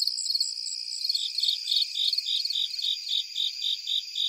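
Crickets of several species call at once from different heights, one chirping in steady, regular pulses while others trill continuously at higher pitches, layered into a dense, shimmering night chorus with no voices.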